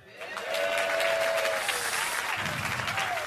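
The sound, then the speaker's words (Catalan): An audience bursts into applause, given as the prize for a contest's winner, a dense steady wash of clapping that swells quickly and holds loud throughout, with a faint tonal whistle-like hum running under it early on. “El vostre aplaudiment públic.”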